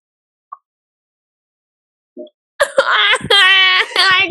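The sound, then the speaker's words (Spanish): A cat meows loudly, a string of two or three drawn-out, wavering cries after a near-silent start with a couple of faint soft taps. “cállense para que puedan escuchar a Olivia”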